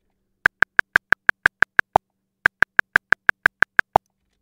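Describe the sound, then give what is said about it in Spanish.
Two runs of about ten quick, evenly spaced metronome clicks, separated by a brief pause. The last click of each run has a different, accented tone. Crisp, with no voices. “Eso es lo que marca los sonidos del metrónomo.”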